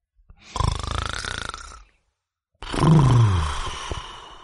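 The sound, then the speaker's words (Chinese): Two loud, rasping snores from a father sleeping in a bedroom, separated by a brief silence. The first is a steady rattling breath; the second is rougher, with a deep tone that slides downward. No one speaks. “这时，卧室的呼噜声又响了起来。”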